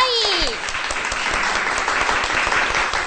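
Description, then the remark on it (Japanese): A crowd applauds to welcome guests onto a show, dense rapid clapping filling the whole stretch at a fairly loud, even level, with a brief rising tonal sweep near the start. “皆さん、拍手でお迎えくださ”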